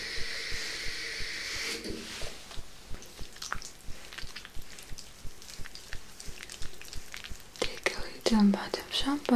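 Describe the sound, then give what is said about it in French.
Shampoo being lathered into wetted hair during a head massage: a steady stream of soft wet squishes and crackling clicks, with a brief watery hiss at the start and faint whispering underneath. “And now I'm ready to put shampoo.”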